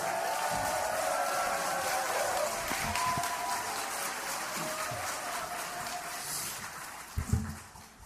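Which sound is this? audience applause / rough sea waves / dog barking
audience applause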